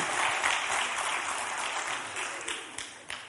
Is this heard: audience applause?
yes